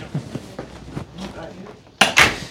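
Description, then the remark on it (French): A door swings shut with two sharp knocks in quick succession near the end, after a stretch of quiet shuffling and faint movement. “Excusez, je vais aller fermer ma porte.”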